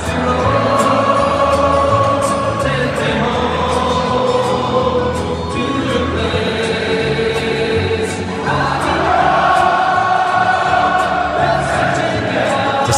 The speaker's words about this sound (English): 70,000 person sing along. A reminder this is Munich, Germany